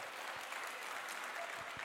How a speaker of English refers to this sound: Yeah, that's a pity clap. So the, the ushers, the ushers will be refunding all your money on your way out for that one.